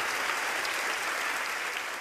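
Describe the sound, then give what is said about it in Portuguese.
An audience applauds steadily, a dense wash of many hands clapping at a constant, fairly loud level throughout, with no voices standing out. “Vocês estão aplaudindo sem ter necessidade.”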